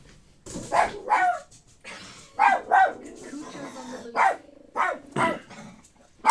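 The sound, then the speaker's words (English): A dog barks over and over, about eight or nine sharp, loud, mid-pitched barks in an uneven rhythm, with a low murmur of background noise between them. “No more chicken jerky for you. You've, you know, this is like farting in church, okay? Do you have any idea what you're doing? Control that animal.”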